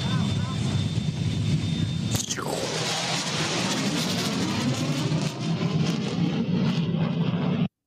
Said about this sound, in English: So that was the sonic boom.